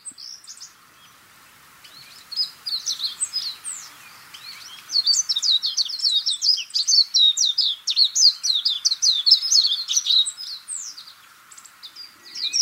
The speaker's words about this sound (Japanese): 目白のさえずりが暴風林に響いていきます海風と一緒になると爽やかさが一段と増して聞こえます